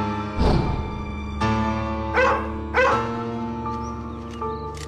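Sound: dogs barking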